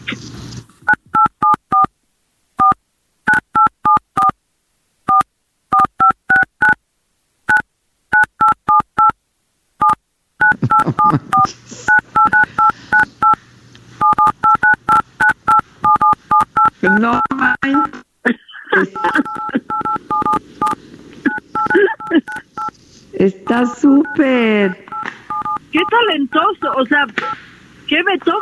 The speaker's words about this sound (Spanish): ya aprendieron a tocar la tusa con su teléfono. Ah, sí. Con el marcado, con el marcado del teléfono